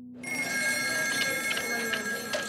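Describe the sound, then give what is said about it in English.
Old telephone bells on a party line system, where multiple people share one phone line, jangle loudly and continuously, their bright metallic ringing overlapping as if several phones sound at once, starting abruptly and carrying on without a break. “The phones are on a party line system.”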